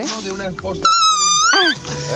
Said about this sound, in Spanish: Además ha hecho, un, ha hecho al principio un gritito, quien lo haya mandado, que de eso que rompe cristales, mira.